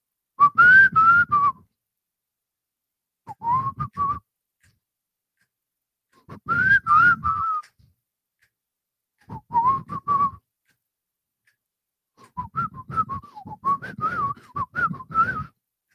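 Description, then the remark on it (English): Someone whistles a short melody in several separate phrases with pauses between them, fairly loud, the notes wavering a little in pitch. No talking. “Oh man, I'm gonna give it a shot now.”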